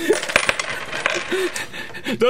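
Small metal jacks drop and clatter onto a hard surface, a burst of bright, ringing clinks, with brief vocal sounds mixed in.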